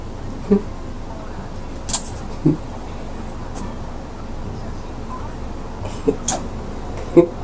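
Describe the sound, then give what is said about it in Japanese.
The cat Ame, playing at a TV screen, taps its claws against it in sparse, sharp clicks, about seven scattered irregularly over a low steady background hum, fairly quiet, with no voices. “カツカツ言ってるのは雨が画面に向かってじゃれてる証拠です”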